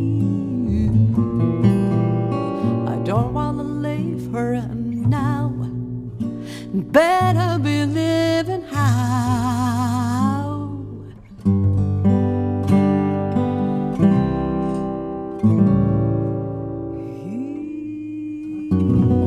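A singer performs a slow, sustained melody with gentle vibrato, accompanied by plucked guitar and a deep walking double bass, the music steady and full for the whole stretch.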